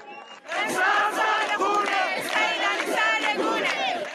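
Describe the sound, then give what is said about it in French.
Hundreds of people chant loudly in unison at the Aichi cemetery in Iran, where Massa Amini is buried, as women wave their veils above their heads; many voices shout together in a steady, rhythmic cadence that starts abruptly after a brief quiet moment and continues without pause. “Des femmes agitent leur voile au-dessus de leur tête et la foule se met à scander.”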